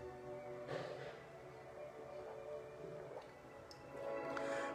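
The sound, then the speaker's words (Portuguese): Someone quietly takes a sip of water, with a few soft swallowing and gulping sounds spaced out over several seconds. No one speaks. “Deixa eu beber só um pouquinho d'água que eu falei demais.”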